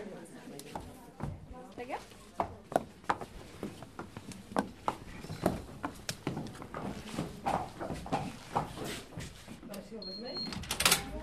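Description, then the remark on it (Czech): Therapy horses' hooves clop on the hard floor of a common room in an Alzheimer's care home in Zábřeh, Czech Republic, a steady run of sharp, irregular knocks, with voices murmuring in the background. “V Alzheimer Home Zábřeh můžou koně i do společenské místnosti”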